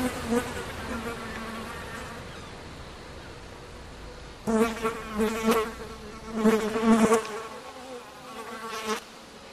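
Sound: housefly buzzing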